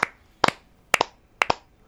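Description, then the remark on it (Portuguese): Hands clap sharply with no talking: one clap, then three quick pairs spaced about half a second apart, each smack bright and crisp with a short ring afterward. “Meia hora de palma nesse programa agora.”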